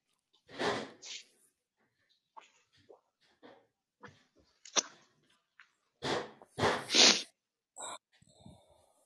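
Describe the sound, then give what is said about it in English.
Gunshots sound off as muffled, booming bursts: a pair early on, then a quick cluster of three or four further along, with faint scattered pops and clicks between them and no talking. “those gunshots.”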